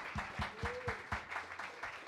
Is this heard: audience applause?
yes